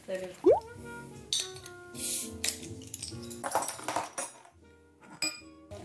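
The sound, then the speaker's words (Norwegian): Beer glasses clink together several times in a quick, bright series, with voices murmuring and talking in the background. “Men eh, nå tar vi med det hjem på stua ja. sammen med øl og noen gode glass.”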